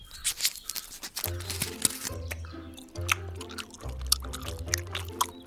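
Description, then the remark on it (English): Wet chewing of swamp-water-flavored bubblegum, with steady smacking and squelching over several seconds, accompanied by a low sustained musical hum in the background. “We can use the chewed bubblegum together to form a shield like sail that'll catch the wind in its bubble field and really get us moving.”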